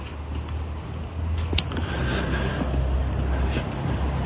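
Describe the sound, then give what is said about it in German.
Steady outdoor wind rushes past in autumn weather, over damp ground with autumn leaves, with a low, continuous rumble buffeting the microphone throughout and a few faint higher rustles; no one speaks. “Ja, jetzt ohne Wind ist es wieder richtig angenehm.”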